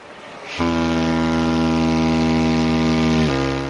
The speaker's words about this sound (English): Today, really, we're having a look at the science of sound. So, we have a glovophone here that sounds a bit like this.